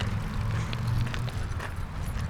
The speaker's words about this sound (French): Je marche sur une allée de petits cailloux